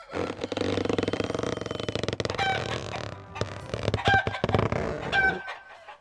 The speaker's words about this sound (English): It's a barn. We're standing in a barn. And get these two chickens over here.